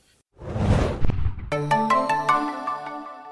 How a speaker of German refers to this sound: huch, hier klingelt's gerade. Ah, ah, fucker. Geh schnell.